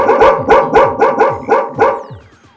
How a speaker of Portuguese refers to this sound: Tem cachorro, tem cachorrada. Tá a cachorrada. Só tem cachorrada.